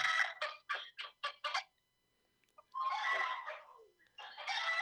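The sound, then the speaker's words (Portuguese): A bantam chicken squawks loudly: a rapid run of about six sharp, harsh clucks, a brief pause, then a long raspy screech followed by another loud burst. “Eu quero ver a galinha.”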